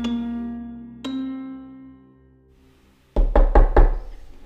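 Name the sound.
knocking on a door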